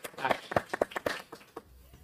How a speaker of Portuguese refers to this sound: Por favor, um aplauso para a nossa secretária.